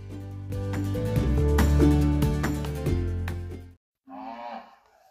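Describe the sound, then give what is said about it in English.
Holstein cattle moo loudly: one long, drawn-out low call lasting several seconds, a brief pause, then a second shorter moo. No one speaks. “what type of cows are we looking at here? Holsteins.”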